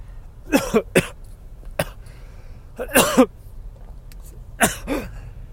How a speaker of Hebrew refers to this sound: וואו. איזה שיעול.